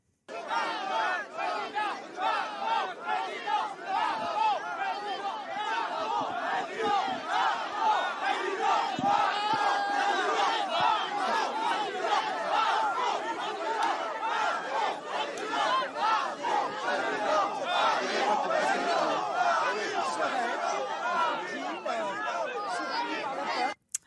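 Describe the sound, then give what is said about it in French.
A large crowd boos and chants "Macron, président" in unison as Marine Le Pen arrives in Saint-Pierre-en-Auge, Calvados, France, a dense, loud roar of many voices that stays steady for the whole stretch, with rhythmic shouted surges rising above the din. “Elle est arrivée sous les huées de Macron, président.”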